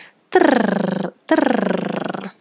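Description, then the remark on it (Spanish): Two sustained rolled-R tongue trills, made with the tongue tip raised toward the palate while blowing, each lasting about a second with a short pause between, voiced, with a rapid fluttering pulse and pitch sliding slightly downward, done as a vocal warm-up exercise. “Luego podemos trabajar con el trino de lengua.”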